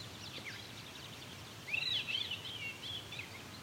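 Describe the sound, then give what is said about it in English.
A mimicking bird strings phrases into a Veery-like song: airy, swirling whistled phrases that ripple and descend, rising out of a faint, steady outdoor hiss about halfway through and continuing. “And there's his Veery song.”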